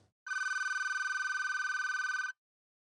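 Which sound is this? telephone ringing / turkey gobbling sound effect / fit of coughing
telephone ringing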